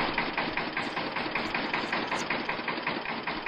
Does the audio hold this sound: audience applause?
no